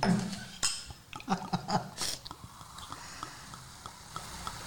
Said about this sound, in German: vielleicht kannst du die Gläser mal kurz füllen? Mache ich gerne. Ich fange mit meinem an.